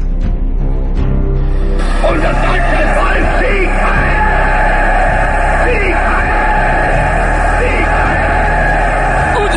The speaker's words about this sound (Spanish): Te aclaman, gritan tu nombre por todas partes. No lo entiendes. No es mi nombre lo que gritan. Hey Hitler quiere decir en el nefasto idioma de los vampiros, es la hora de la lucha por el bien.